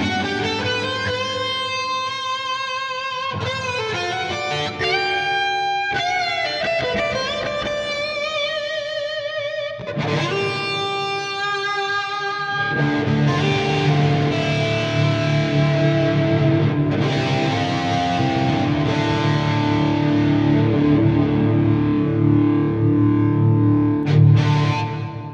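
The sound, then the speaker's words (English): Distorted electric guitar playing chords and riffs through a Mimiq doubling pedal switched back on, giving a thick, layered sound that grows fuller and louder in the second half. No talking. “Mimiq back on.”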